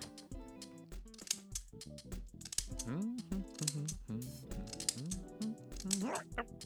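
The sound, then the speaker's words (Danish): A short radio show jingle about scissors, with voiced melodic phrases and sliding pitches, punctuated by sharp clicking scissor snips, plays on its own at a fairly steady level for several seconds. “Og det er jo for jinglen af saksen.”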